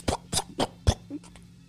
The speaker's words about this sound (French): Je claque la porte pour empêcher les mouches de me suivre. Effectivement, tu vas entendre derrière, au moment où tu claques la porte, comme si toutes ces nuées de mouches commençaient à, s'éclater sur la porte en fait.